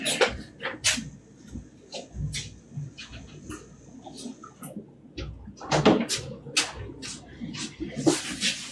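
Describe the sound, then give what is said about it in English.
Irregular hard knocks and clicks from a failing aquarium power head rattling inside a tank, fairly loud, over a faint steady hum that cuts out partway through. “I have a power head that must be going because it's knocking around pretty good in the tank.”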